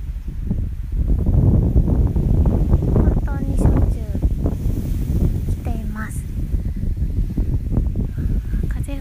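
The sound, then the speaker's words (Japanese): Strong wind roars and buffets the microphone in a steady, heavy rumble outdoors at Lake Shikaribetsu in Japan on a fine day, with a woman's voice speaking over it. “風の音に負けないように、いつもよりハキハキお話ししました”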